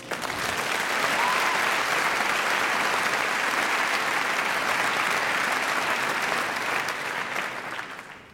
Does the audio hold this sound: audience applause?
yes